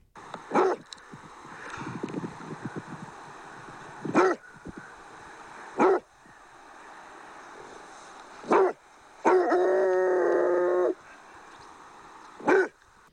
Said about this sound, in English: This is Peter the Basset barking.